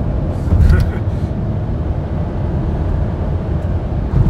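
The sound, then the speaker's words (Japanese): Steady, loud low rumble of a car's interior as the engine works harder on an uphill road, on the way to a cyclocross event, a dense droning roar filling the cabin with a brief louder swell near the start. “延山シクロクロスに向かう車内から収録してますちょうど坂道入っちゃったんでうるさくなっちゃった”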